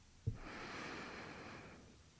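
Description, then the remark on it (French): A single long, deep breath drawn in through the nose, a steady airy hiss lasting over a second, fairly soft, with no talking. “Maintenant, inspirez par le nez.”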